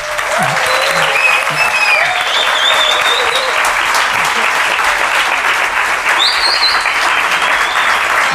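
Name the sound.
audience applause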